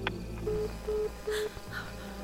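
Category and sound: signal or alarm, telephone keypad dialing tones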